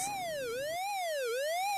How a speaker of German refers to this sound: Wo der Dagobert Duck sein Geld am Zählen ist, geht plötzlich der Alarm los.